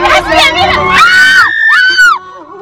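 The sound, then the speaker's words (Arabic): Several people scream at once in a loud, high-pitched burst, voices overlapping and wavering over about two seconds before cutting off, with crowd noise underneath, in a clip said to show a car accident. “صراحة أنا ما شفت أي حادث بس يقولون أنه حادث خلونا نشوفه سوا أنا للأمانة سمعت صراخ ما شفت حادث سيارة الله وكيلكم حادث ضوضائي بس”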